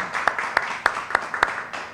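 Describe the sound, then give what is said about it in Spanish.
Audience applause: a steady wash of many hands clapping, with six sharper claps standing out in an even rhythm, moderately loud throughout and without any talking. “Venga, un aplauso.”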